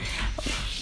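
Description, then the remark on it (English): A cat trying to climb a wall makes a brief burst of scratching and scrabbling noise, with a couple of faint thumps and no talking. “sorry that was my cat trying to climb the wall.”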